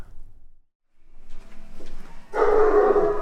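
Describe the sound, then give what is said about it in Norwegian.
Four German shepherd dogs at a dog boarding kennel bark as someone approaches, a sudden loud burst of overlapping barking that starts partway in after quieter rustling and low noise, continuing to the end. “Her står det nå fire schæferhunder. De sier ifra når noen nærmer seg her.”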